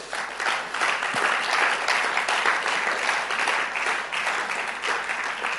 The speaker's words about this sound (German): Ähm, wir wollen euch mal einen Applaus geben, wenn ihr hier seid. Echt danke dafür.